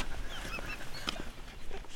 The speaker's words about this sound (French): Et là, c'est les canards qui s'envolent.